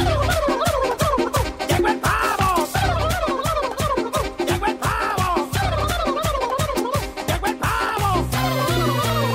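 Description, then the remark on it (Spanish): A turkey gobbles loudly and repeatedly, its rapid rattling calls rising and falling in wave after wave across the whole stretch, with no talking. “el pavo!”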